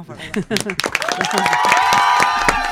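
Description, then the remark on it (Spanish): A crowd breaks into steady, loud applause for a referee, sharp claps overlapping densely, with voices cheering and calling out in rising, sustained tones as the clapping continues. “Pero a vos te vamos a aplaudir. Sí, te vamos a aplaudir.”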